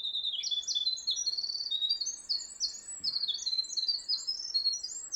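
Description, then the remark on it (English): A winter wren, a tiny songbird of the genus Troglodytes, pours out a long, rapid song of high, tinkling trills and warbles, unbroken for several seconds and clear, with only faint background noise and no voices. “One of my very, very favorite birds, both to see and to hear, is a diminutive little bird called the winter wren.”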